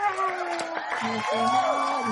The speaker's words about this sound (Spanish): Aquí es donde se escuchan los aplausos.